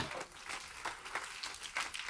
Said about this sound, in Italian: Fai un applauso di lode al Signore.